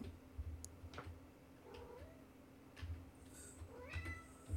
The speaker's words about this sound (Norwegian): faen, katt.